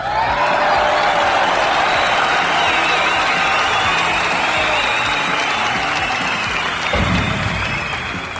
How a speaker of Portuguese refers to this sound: Palmas para o nosso convidado.